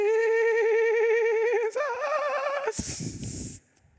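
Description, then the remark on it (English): A voice sings the word "Jesus" as a sustained, exaggerated warbling note with heavy wobbling vibrato, imitating a great-grandmother's built-in vibrato, loud, shifting pitch midway, then breaks into a breathy burst before trailing off. “And she had this built in vibrato reverb where you've heard people sing, Jesus.”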